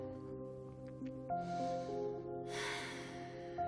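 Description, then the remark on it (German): A forceful, snorting, breathy exhale bursts out once near the end from a person doing an abdominal exercise, lifting the feet, over a steady backdrop of soft sustained music tones. “Auch hier wieder Variante bei Heben, Schnaufen und und mit einem Lächeln durchgehen, wenn es anstrengend wird.”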